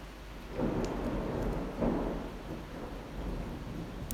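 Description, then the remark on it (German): Heavy rain pours steadily while low thunder rolls through in a couple of deep, swelling rumbles, loud, with no voices. “Wow, so ein Regen ist schon cool.”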